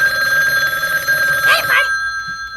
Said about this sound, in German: Dafür läutete kurze Zeit später das Telefon in der Zentrale.